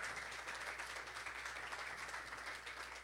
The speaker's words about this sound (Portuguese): Obrigado, pastor. Dê uma linda salva de palmas ao Senhor Jesus.